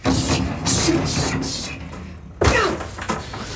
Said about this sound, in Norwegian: hører du da bokstavelig talt G. Gordon Liddy brenne alle de plansjene over de sinnssyke planene